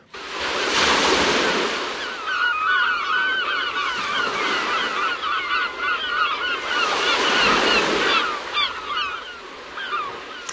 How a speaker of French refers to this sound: C'est le cri des goélands. Alors, c'est bien des goélands là, je me suis pas trompé.